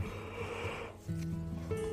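A person yawns: a long breathy intake of air that shifts into a drawn-out, low voiced groan, all in under two seconds with no talking.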